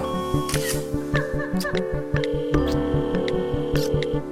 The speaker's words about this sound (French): on fait une photo pour Instagram